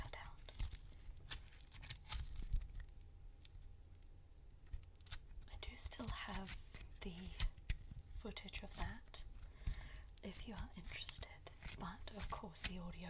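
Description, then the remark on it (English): Quiet crackling and squishing of beaded Floam slime, with many small popping clicks in an irregular rhythm and soft whispering faintly underneath. “I mean, this is basically Floam at this point,”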